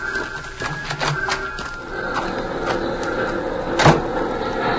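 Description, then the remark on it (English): A door is opened with a series of mechanical clicks and rattles, ending in a sharp knock as it swings, over a steady low background hum. “Now open the door and get inside.”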